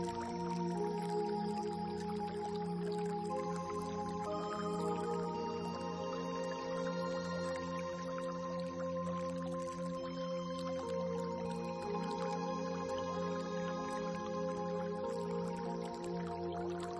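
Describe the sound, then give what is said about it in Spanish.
Water drips and flows steadily throughout, layered with sustained, humming tones like a soft ambient drone, at an even, moderate level with no voices. “Deja que todo este sonido te traspase, se haga parte de ti. Este elemento agua.”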